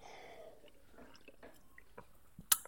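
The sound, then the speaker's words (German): Someone quietly sips a homemade apple juice spritzer, made from home-harvested apple juice mixed with water, from a glass, with soft wet slurping and swallowing sounds, ending in one sharp, bright click. “Aber wo wir gerade beim Essen sind, ich muss mal gerade an meinem äh, selbst geernteten Apfelsaft und beziehungsweise der daraus erstellten Schorle nippen.”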